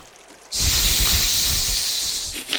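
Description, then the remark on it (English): After a brief quiet moment, a loud, sustained hiss starts abruptly and holds steady for about two seconds, a person imitating a snake, tapering off with a faint breathy tail. “you know exactly what Wild Root is because of your background, but you're a snake, so you couldn't.”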